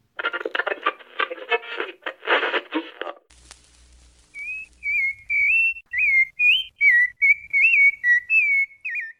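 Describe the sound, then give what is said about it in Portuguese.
A sabiá thrush sings a run of clear, fluty whistled phrases, each note sliding up and down in pitch, repeated in a steady rhythm and heard loudly on its own after a brief noisy opening. “Consta que o termo sabiá deriva da língua tupi e significa aquele que reza muito, em alusão ao rico repertório vocal desses pássaros.”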